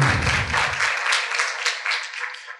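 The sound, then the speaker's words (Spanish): A crowd applauds steadily, many hands clapping in a dense, even patter that holds fairly loud for a couple of seconds. A low rumble fades out early, and no one speaks. “un aplauso, por favor.”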